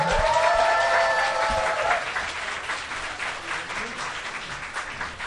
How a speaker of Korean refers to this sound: 박수로 맞아주세요.